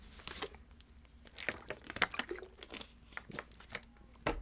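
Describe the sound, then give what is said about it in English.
Wet swallowing and gulping as someone takes a swig of water, with soft sloshing and a few sharp mouth clicks in an irregular rhythm, no talking. “Let me take a swig of water”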